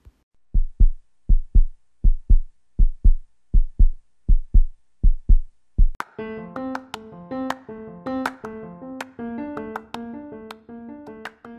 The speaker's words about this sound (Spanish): Por las mañanas, a quien no le gusta tocar el tambor al ritmo de su corazón, la rana y el topo se preguntan curiosos. ¿De dónde vendrá ese sonido tan hermoso?